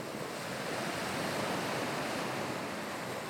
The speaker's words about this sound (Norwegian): Den gang slo bølgene innover den greske byen, som var en del av Bysants og det østromerske riket. I dag heter byen Demre og ligger i Antalya-provinsen sør i Tyrkia.